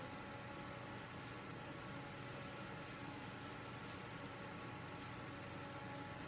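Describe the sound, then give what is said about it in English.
A video game race car engine in a NASCAR game idles steadily on pit road at Ivy Investment Speedway, a custom track based on Kentucky Speedway, with a constant low rumble and buzzy mechanical hum, loud, with no speech and no changes in revs throughout. “Just need to get this car out on track. And off pit road.”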